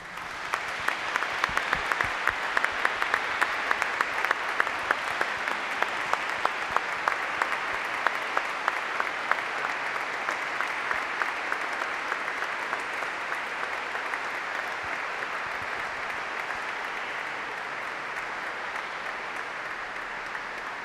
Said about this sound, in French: Oui, chers amis, nous avons bien raison de les applaudir et d'applaudir tous les chefs d'établissement de l'enseignement catholique en Gironde, tous ceux qui vont œuvrer au cours de cette année à la belle mission éducative de l'Église.